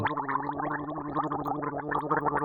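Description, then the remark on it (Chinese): A voice imitates a drowning person: a continuous wet, throaty gurgle with a steady low hum and rapid bubbling pulses, loud and unbroken for about two and a half seconds. “很像溺水的声音，干，是不是很可怕？”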